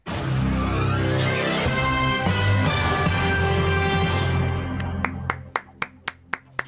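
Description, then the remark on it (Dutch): After several seconds of dense, loud music, about six sharp hand claps ring out alone at a steady, even rhythm, crisp. “ja, ja, ik klap altijd nationaal, hoor.”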